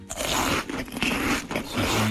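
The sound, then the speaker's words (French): Loud, wet chewing, with crunchy, smacking bites repeating in an uneven rhythm as a colleague at work eats with their mouth open, no speech. “Le son du collègue qui mange la bouche ouverte.”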